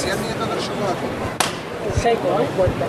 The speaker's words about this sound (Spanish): Fuerte, ¿eh? Tres golpes de llamador.